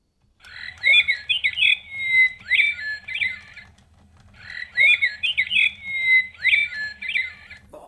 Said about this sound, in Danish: Og på knappen kunne kejseren tænde for nattergalen, således at den begyndte at synge. Nøjagtigt ligesom nattergalen.